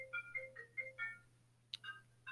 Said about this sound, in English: Sorry, that phone's just going to ring.